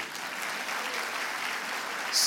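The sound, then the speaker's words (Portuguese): A crowd claps steadily in dense, even applause, a continuous wash of hand claps that swells slightly louder near the end. “Uma salva de palmas para ele aí.”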